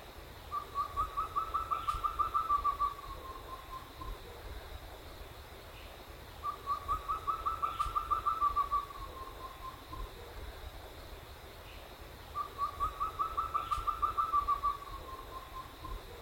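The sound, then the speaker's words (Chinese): A collared owlet, a fist-sized owl, the smallest owl species, calls from a Chinese tallow tree in the early morning, in three evenly spaced bouts, each a quick run of soft, mid-pitched whistled notes lasting a couple of seconds, over a steady faint insect-like hum. “清晨在乌桕树上能够听到鵂鶹的叫声， 鵂鶹只有拳头大，是体型最小的猫头鹰，也是二级珍贵的稀有鸟类。”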